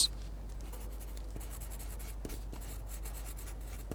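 A pencil tip scratches steadily back and forth across a sheet of paper as vocabulary words are written down, fairly quiet, in quick strokes with a few sharper ticks as the tip lifts and lands, and no voices.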